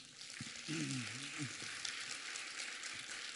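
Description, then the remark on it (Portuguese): A crowd claps to praise the Lord, in a steady, dense wash of applause throughout, with a voice briefly calling out underneath near the start. “Aplauda ao Senhor, gente.”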